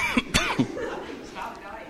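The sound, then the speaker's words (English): Three sharp coughs in quick succession within the first second, followed by quieter breathy vocal sounds as the person recovers. “I just it's, it's, about to get crazy if I keep coughing.”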